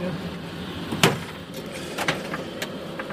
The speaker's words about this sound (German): Kommst du mal rein, machen wir mal die Tür ein bisschen ran